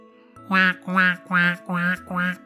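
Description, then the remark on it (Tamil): A golden-egg-laying duck quacks loudly five times in a steady, evenly spaced run as it is carried off, each harsh nasal call clear with short gaps between them. “இந்த வாத்து பயங்கரமா கத்த ஆரம்பிச்சிடுச்சு வாத்தோட இந்த சத்தம் கேட்டதும் தூங்கிக்கிட்டு இருந்த அரக்கன் திடீர்னு எழுந்திருச்சான்”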